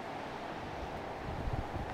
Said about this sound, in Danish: Øhm, og man kan høre, måske vinden suser lidt i fyretræerne, der står på sommerhusgrundene her.